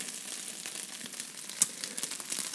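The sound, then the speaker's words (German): Rice-polenta balls frying in a frying pan over very high heat, a steady, dense crackling hiss with scattered sharper pops, fairly quiet, with no one talking. “Jetzt tun wir sie einfach, einfach noch ein bisschen anbraten.”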